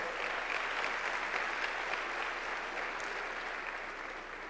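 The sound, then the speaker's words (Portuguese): An audience applauds loudly, a dense wash of many hands clapping at once that holds steady throughout and eases off only slightly near the end. “Pode dar um aplauso bem forte.”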